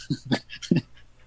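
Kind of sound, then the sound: animal, dog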